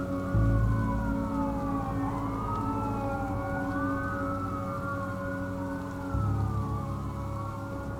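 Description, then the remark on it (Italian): Several emergency sirens wail at once as they approach along with a news van, their pitches sweeping up and down and overlapping, with a deep engine rumble underneath and a steady loud presence throughout. “Perdete i sensi quando già il furgoncino dei giornalisti e le prime sirene si avvicinano.”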